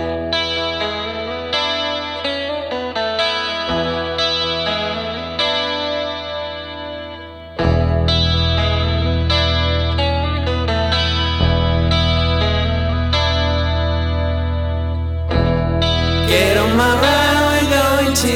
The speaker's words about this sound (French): Et donc là, ils reviennent avec un nouveau single qui annonce évidemment un nouvel album à arriver. On va écouter ce single